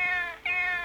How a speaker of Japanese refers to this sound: これ鐘を叩くと、猫の鳴き声になってるっていう。ああ、で画像も切り替わるんだ。